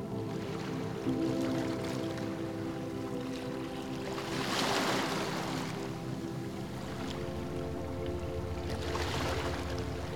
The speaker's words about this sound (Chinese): 紧接着。又一层浪，远远地飘了过来，此起彼伏的海浪声，让人胸怀开阔，轻松自在。